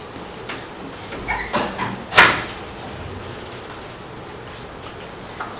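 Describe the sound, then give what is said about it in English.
A door is opened: a few soft rattles and bumps build to one sharper scraping clack, then only a steady background hiss remains. “Just open the door, see if anyone is there.”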